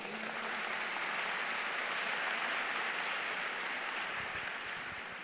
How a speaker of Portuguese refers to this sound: Dá uma salva de palmas para as meninas aí.